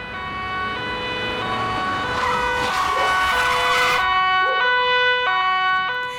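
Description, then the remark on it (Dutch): Police car sirens wail continuously as police cars drive up onto the pavement for a raid on a neighbour's home, their pitched tones stepping and overlapping, with a broad rush of traffic noise swelling in the middle. Loud, with no voices. “Tot de sirenes gillen. Politiewagens de stoep oprijden en agenten inval doen in de woning van je buurman.”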